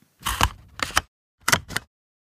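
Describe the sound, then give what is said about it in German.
A hole punch presses through paper: four short, crunchy mechanical clacks, a slower pair followed after a brief pause by a quicker pair, fairly loud, with no voices. “Es ist ein Locher.”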